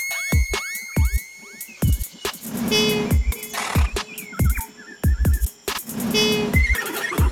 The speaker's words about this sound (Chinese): 你没有听过无尾熊的叫声吗？